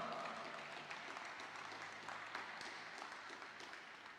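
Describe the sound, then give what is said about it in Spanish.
An audience applauds steadily, a dense wash of many hands clapping at an even level for several seconds, with no one speaking over it. “Dale un fuerte aplauso papá.”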